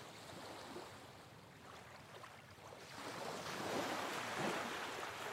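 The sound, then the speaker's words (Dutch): Ocean waves wash steadily onto a beach, a broad rushing hiss that swells louder midway through as a wave breaks and spreads. No voices, just continuous surf with a light breeze. “En terwijl je heerlijk doorloopt over het strand, je voet in het water”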